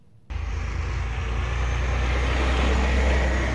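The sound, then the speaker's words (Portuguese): A deep, loud rumble of heavy trucks passing on Rua do Batalheiro in Casais Novos, Alenquer, cuts in abruptly and swells into a steady roar of engine and road noise, with no talking. “Mora na Rua do Batalheiro, em Casais Novos, Alenquer, e recorda que está a viver um autêntico pesadelo com o ruído da circulação de tantos caminhões.”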